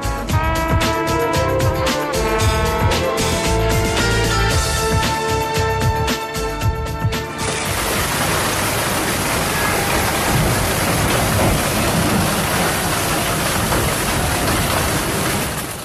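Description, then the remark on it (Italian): A heavy afternoon hailstorm over Pescara, Italy, and surrounding areas roars steadily, a dense, loud wash of large hailstones, some as big as oranges, pelting down. It starts under a few seconds of music, then continues alone as a constant clatter. “Quelli che state sentendo sono i rumori della forte, fortissima grandinata di questo pomeriggio che si è abbattuta su Pescara e anche sulle zone circostanti.”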